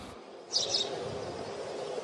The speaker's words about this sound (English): 我们看到了什么呢？The baby bird，一只小鸟宝宝。The baby bird is tweeting。